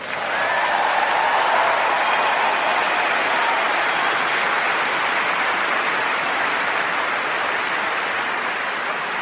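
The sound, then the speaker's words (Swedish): Edited-in applause sound effect: a dense steady wash of crowd clapping that starts abruptly and holds at an even, fairly loud level for about nine seconds with no talking. “Jag, kommer att klippa in applådåskor och grejer”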